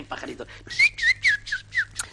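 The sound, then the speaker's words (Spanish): A person whistles an imitation of little birds chirping: about five quick, bright tweets in a lively rhythm, clear, following a brief murmur of voice. “Por cierto, me cuentan mis pajaritos.”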